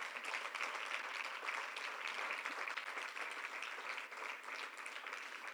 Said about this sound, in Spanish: Denle un fuerte aplauso a Cristo, hermanos.